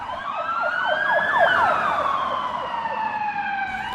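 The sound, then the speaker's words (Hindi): Ambulance and police car sirens blare together as an ambulance and police arrive, one a slow rising-and-falling wail, the other a rapid yelping chirp, loud over a steady rumble of road noise, with no talking. “तब तक एम्बुलेंस और पुलिस भी आ चुकी थी”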